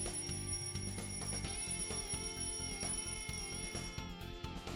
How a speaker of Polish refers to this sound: To był budzik, nie pytaj. Budzik.